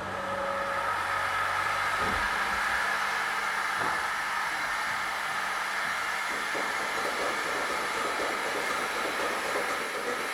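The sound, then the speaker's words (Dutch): A milking machine runs with a loud, steady mechanical roar and hiss, unbroken, with a few faint clanks and knocks along the way. No one speaks. “Ik ga de melkmachine aanzetten. Dan gaat er heel veel lawaai zijn, hè?”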